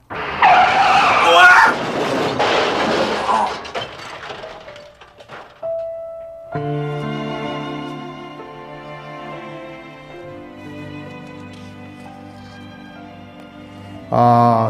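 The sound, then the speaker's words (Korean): A loud tire screech of a car skidding in a traffic accident at night fills the first few seconds, then dies away into a lingering tone before soft sustained music takes over. “그런데 수영대회를 이틀 앞둔 그날 밤 연습을 마치고 집에 가던 길 교통사고가 났습니다.”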